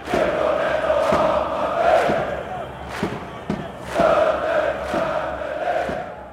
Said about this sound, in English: In one of their brainstorms, someone brought up the idea of a call and response chant, like you might hear at a soccer game.